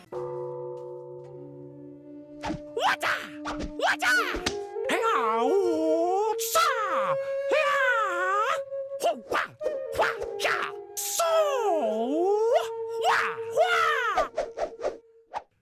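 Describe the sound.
An electronic dance track from the soundtrack of the video game Sifu, with sharp percussive hits, swooping pitch-bending synth lines and steady held tones, punctuated by short shouted martial-arts style vocal exclamations, loud and up front throughout.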